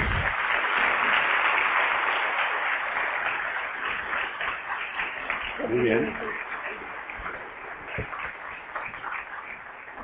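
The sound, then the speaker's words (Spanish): An audience in a city in Colombia applauds steadily to welcome a speaker, a dense wash of clapping that eases slightly toward the end, with a brief voice or cheer rising out of it midway. “Recibamos por favor con un fuerte aplauso”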